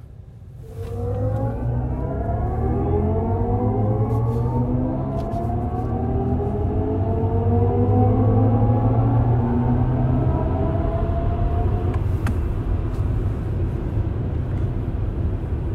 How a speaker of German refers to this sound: So, äh, … hat hier die Musik für dieses Auto komponiert, die sogenannten Iconic Sounds. Und das hören wir uns jetzt doch einmal so als Abschluss dieser Podcast-Folge an.